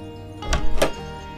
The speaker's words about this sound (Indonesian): Tidak lama kemudian, Eyang membuka pintu dengan wajah kaget.